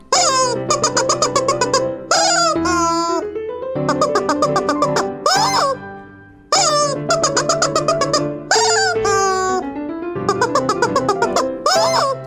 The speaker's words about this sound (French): Et tiens, écoute-moi, après un an d'entraînement au poulet en plastique.